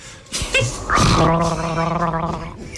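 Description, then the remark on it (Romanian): Gargling that sounds like a voice imitating it: a wet, bubbling throat rattle with a sustained voiced tone underneath, fairly loud, lasting about two seconds after a brief sputter. “Asta e gargară. Asta e gargară, băi. Gargară pentru doi.”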